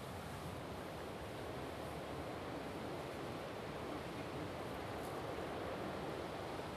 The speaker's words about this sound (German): Wenn ihr das Rauschen hört, das ist die Nordsee und der Wind. Nordseewind.